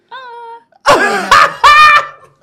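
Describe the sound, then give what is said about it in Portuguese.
A person vocally imitates a small bear-like moan: a soft, steady hum first, then three loud, rough, throaty groans in quick succession. “Aí, só que aí ela tá falando que foi tipo um gemidinho de urso.”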